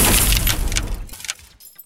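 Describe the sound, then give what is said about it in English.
Tempered glass shatters in a loud burst, a dense spray of crackling, tinkling fragments that thins out and fades over a couple of seconds, with no voices. “As I was sitting alone and quietly on a couch 17 stories in the air, I couldn't imagine what glass had broken. I could tell it was tempered glass by the sound.”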